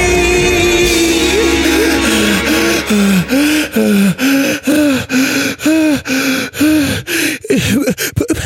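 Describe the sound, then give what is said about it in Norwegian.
Rapid, strained gasping breaths of a person with asthma having an attack repeat in a quickening rhythm, each inhale harsh and wheezy, loud, with no speech, like someone struggling for air. “Jeg trodde det bare var sånn dramatisk grep, at du pusta sånn på slutten.”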